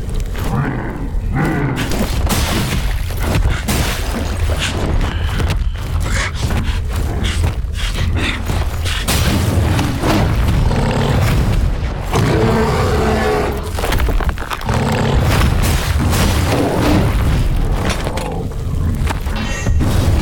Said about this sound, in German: Der Sound der Kämpfe klingt zudem noch schön satt. Alles wird mit einem unheilvollen Klangteppich untermalt.